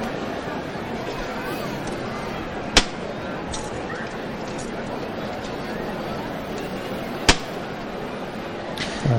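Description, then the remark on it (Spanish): Two sharp, loud knocks from the knocker of the procession float of the Santísimo Cristo de la Expiración ring out several seconds apart, a call made without any spoken voice, over a steady murmur of crowd voices, followed at the very end by a short swell as the float is lifted by hand. “Una llamada sin ningún tipo de voz y levanta pulso el paso del Santísimo Cristo de la Expiración levantada a pulso”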